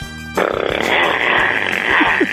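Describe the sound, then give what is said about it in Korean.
A voice imitates a motorcycle engine in a voice-mimicry contest, a loud, buzzing, rattling drone that starts abruptly and holds steady for a couple of seconds with a rough pulsing texture. “자, 오토바이. 민주지간 오토바이 들어볼게요.”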